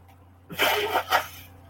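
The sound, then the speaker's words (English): A nose being blown: a loud, breathy, roughly one-second burst of hissing air that swells twice, with no talking and a steady low hum in the background. “Let me blow my nose real quick.”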